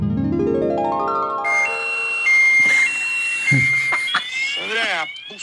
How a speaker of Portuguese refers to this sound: buceta da moto do caralho aqui, parou a porra do alarme tá pitando. Sei que bosta que aconteceu. Tô tentando arrumar aqui.